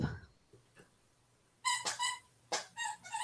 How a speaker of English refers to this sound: Sorry, and, that's my uh, dog now. Stop. Dogs.